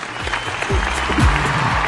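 A burst of big applause dedicated to a singer: dense, steady clapping from many hands that fills the whole moment at a loud, even level, with faint low vocal sounds mixed underneath.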